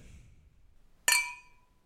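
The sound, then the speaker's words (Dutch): A single bright clink of glasses touching in a toast, with a clear ringing tone that fades over about half a second after a quiet moment. “Laten we nog één keer afsluiten met onze alombekende proost. Klinken.”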